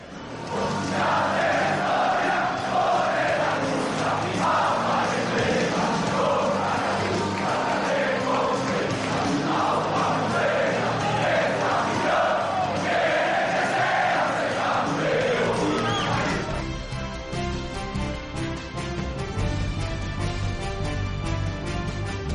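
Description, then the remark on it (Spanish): The Real Valladolid club anthem plays loudly at Ipurúa at the end of the Eibar vs Real Valladolid match (0–2) as a large crowd sings along in unison; near the end the massed voices drop away and the instrumental music carries on. “Mira, espera, que suena el himno del Real Valladolid.”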